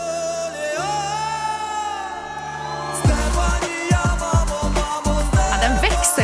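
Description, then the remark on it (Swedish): The chorus of a Ukrainian rap song plays loudly: a sustained, droning synth passage gives way halfway through to a heavy, punchy beat with deep bass and dense layered sound. “Shh, nu är det refräng.”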